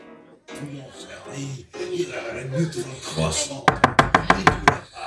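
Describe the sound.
People talk, then someone raps on a back storage room door in a quick, loud burst of about eight knocks in steady rhythm.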